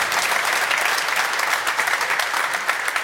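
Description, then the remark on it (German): A live audience with many Bayern fans applauds steadily, a dense wash of clapping with some cheering mixed in, sustained and fairly loud throughout. “Viele Bayern-Fans hier im Publikum.”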